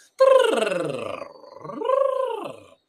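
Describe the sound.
A voice makes a rough, rattling gargle-like throat sound as a pronunciation exercise, first a sliding guttural drone and then a rising-and-falling second burst, fairly loud, with no words spoken.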